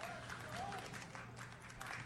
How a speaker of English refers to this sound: Well, they are about to let the the crowd in here. That was the big roar.